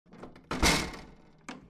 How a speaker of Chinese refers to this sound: 是什么声音呢？哎，是窗户传来的声音。